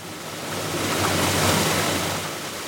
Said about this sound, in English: So in California's Central Valley, they're pumping it out of aquifers hundreds of feet underground. That's what you see and hear right alongside fields and orchards that feed a good part of the U.S.